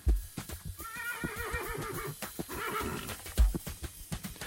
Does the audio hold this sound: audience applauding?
no